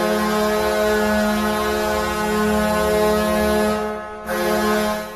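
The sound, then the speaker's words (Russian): A loud, sustained arena goal horn of the Anaheim Ducks hockey team blares with a deep, rich harmonic tone, briefly cutting out near the end before sounding again, with no voices present. “Это звучат Анахайм Дакс.”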